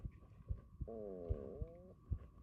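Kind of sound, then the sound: human body sound, stomach rumbling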